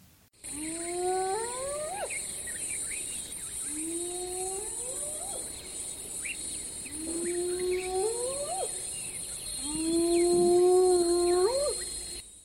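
Four rising whoop calls of hyenas from a rival clan, spaced about three seconds apart, each sliding upward in pitch and ending abruptly, loud over a steady high-pitched insect drone.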